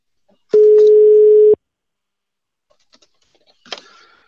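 signal or alarm, telephone ringing tone

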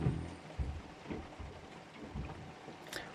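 nature, rain falling outside

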